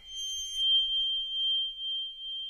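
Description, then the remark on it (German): Crotales, thick small metal discs like mini cymbals, bowed with a double bass bow give a piercing, steady high-pitched tone. Shimmering overtones fade after the first moment, leaving one pure sustained squeal, with no talking. “Kann man auch anstreichen mit dem Kontrabassbogen, die brutal ist. Dann gibt es einen ganzen irren Sound.”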